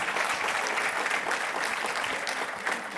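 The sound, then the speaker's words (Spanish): Sustained audience applause for the King of Kings, a dense, steady wash of many hands clapping at full volume for the whole stretch, with no voices standing out above it. “fuerte aplauso al strong Rey de Reyes.”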